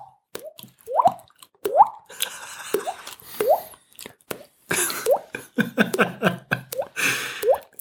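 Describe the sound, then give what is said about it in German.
Water drips steadily and unevenly, each drop landing with a resonant, rising plink, the drops coming faster and overlapping toward the end, echoing like a dripstone cave. “Ja, also wie so eine Tropfsteinhöhle.”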